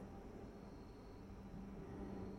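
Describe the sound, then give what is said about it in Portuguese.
A steady, low engine rumble from an airplane passing near a home close to the city airport, faint and continuous with a faint high whine, holding level for the whole stretch with no voices. “Aham, ele deve estar tá captando esse barulho aí. É do avião que passa aqui perto de casa.”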